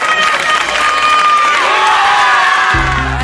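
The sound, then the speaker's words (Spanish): A crowd of wedding guests cheers and whoops loudly and steadily, with high shouts and excited voices blending together, and a low thumping sound joins in near the end. “Así suena la boda de tus mejores amigos, los de toda la vida, tras dejar atrás tus problemas con el juego.”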